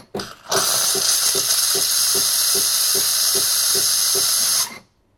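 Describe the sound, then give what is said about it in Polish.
A loud, steady blast of hissing steam from a coffee machine, purging and disinfecting the milk frother's outlet after hot water rinses its hose, lasts about four seconds with a rapid rhythmic pulsing underneath, then cuts off abruptly. No one speaks. “ten głośny dźwięk, który Państwo teraz słyszeliście, to było też jakby osłyszenie przy pomocy pary, mm, taka jakby dezynfekcja E, tego elementu wylotowego, z którego nam cieknie, e, leci piana, tak?”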